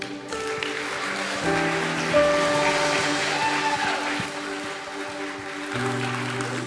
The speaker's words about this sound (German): Von daher lasst uns ihn mal mit einem Applaus begrüßen.